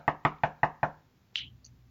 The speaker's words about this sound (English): the guest, it's it's their show, so if they're going to knock and come on in, th- then that's more than fine.